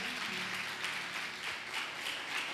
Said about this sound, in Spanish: Queremos compartir esta palabra, pero si todos los presentes me ayudan, le damos un fuerte aplauso a todas las personas que están conectados. Esto es para ustedes.